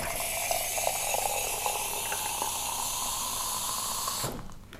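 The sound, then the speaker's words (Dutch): Hot water hisses and gurgles steadily out of a machine nozzle for about four seconds, fairly loud, with a faint mechanical rattle, then cuts off abruptly. No one speaks. “Oh, nee, nee, ik wil heet water.”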